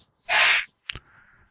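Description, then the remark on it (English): A single loud, hissy sneeze from a woman elsewhere in the house bursts out for about half a second, followed by a short sharp click and a faint lingering tail. No one speaks. “Well, Bless whoever's sneezing their head off there.”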